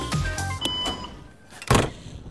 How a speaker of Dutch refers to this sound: Ja, de deur valt dicht. De deur van de ICNG, de plek waar de machinisten de cabine instappen.